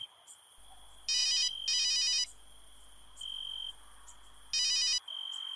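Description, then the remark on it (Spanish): An electronic phone ringtone chirps in three short bursts for an incoming call from a supervisor returning a call, with a steady high tone and a low hum in between. It sounds moderately loud, with nobody talking. “Colgué mi teléfono y aproximadamente a los 15 minutos mi supervisor me regresó la llamada.”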